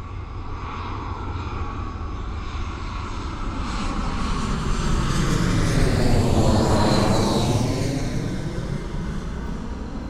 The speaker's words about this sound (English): Bring in some planes flying overhead.